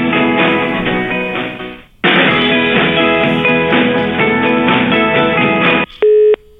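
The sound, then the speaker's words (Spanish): Tinny, phone-filtered music plays as the ringback of a call that goes unanswered, with a brief pause midway, then cuts off into a short, steady electronic tone. “No contesta.”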